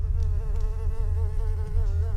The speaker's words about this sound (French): Cette mouche vit ses derniers instants. Sans le savoir, ce petit insecte s'est posé sur la toile de la tégénaire. En bougeant, elle transmet des vibrations sur toute la toile de l'arachnide.